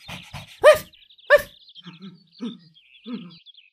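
A dog gives two loud, sharp barks, followed by a few softer, shorter yelps, with faint high bird chirps twittering in the background and no talking.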